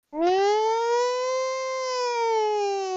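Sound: alarm siren sound effect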